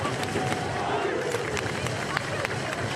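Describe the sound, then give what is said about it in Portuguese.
A dense crowd of fans outside the Paris Saint-Germain stadium in Paris celebrates Messi's arrival with a continuous roar of overlapping voices and scattered sharp claps or bangs poking through the steady, loud din. “Festa também na porta do estádio.”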